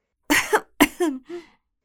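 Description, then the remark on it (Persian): A deliberate, forced cough by the flower in The Little Prince, repeated three times in quick succession, fairly loud, with voiced, throaty bursts that soften toward the end before silence. “با وجود این بنا کرد زورکی سرفه کردن تا اون احساس پشیمونی بکنه”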